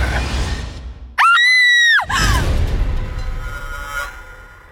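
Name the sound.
woman screaming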